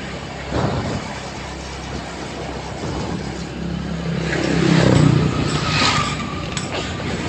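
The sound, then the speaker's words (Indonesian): A steady, rumbling engine drone with mechanical rattling throughout, swelling and rising in pitch around the middle as a motorcycle suddenly cuts in and passes, revving, then easing off. “gara-gara motor tadi tuh nyelang nyelang motor tiba-tiba gua jadi nunduk deh buat ngalahin kecepatan”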